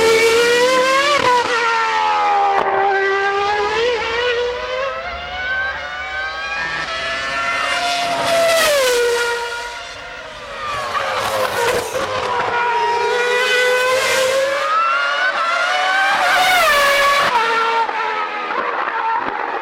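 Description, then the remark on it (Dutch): Loud racing cars scream past one after another, each engine's pitch climbing as it approaches and dropping away as it passes, with overlapping whines and no voices. “Dus je hoort heel vaak het eh, Doppler-effect, zoals we dat noemen.”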